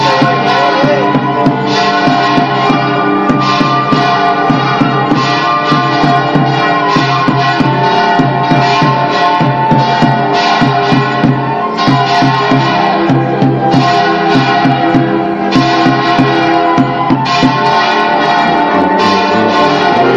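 Church bells peal loudly and continuously over a plaza as a religious procession arrives, with rapid, overlapping strikes ringing out in a steady rhythm and long sustained tones filling the whole stretch, with no talking.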